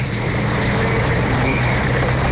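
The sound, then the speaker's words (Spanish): A steady, continuous rumble of road traffic and engines in a traffic jam on a downhill curve in Navarrete, fairly loud and unbroken throughout, with a low droning hum underneath and no voices. “En este momento crucé por el tapón de de, de Navarrete.”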